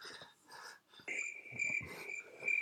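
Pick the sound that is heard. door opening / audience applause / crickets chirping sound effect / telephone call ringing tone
crickets chirping sound effect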